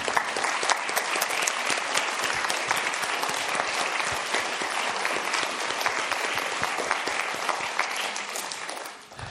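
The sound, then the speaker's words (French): Sustained audience applause, a dense patter of many hands clapping at steady volume for several seconds before tapering off slightly at the end. “Eh bien voilà, je crois qu'on euh, a eu beaucoup, beaucoup, on peut l'applaudir.”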